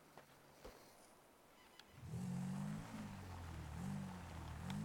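A quad bike engine in a video game idles with a few faint clicks, then revs up loudly at about two seconds, its pitch rising and falling in waves as the throttle is worked, steady until the end.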